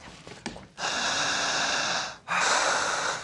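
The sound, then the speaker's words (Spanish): Long, deep breaths taken during a guided relaxation exercise: a loud, airy rush lasting over a second, a brief pause, then another heavy breath, with no talking. “Siga respirando.”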